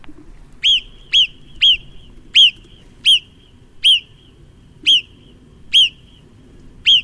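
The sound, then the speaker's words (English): A marmot's whistling alarm call: nine sharp, piercing chirps repeated at slightly uneven intervals, loud over a faint low background hum, with no voices. “Actually, to be fair, that's the recording of a marmot.”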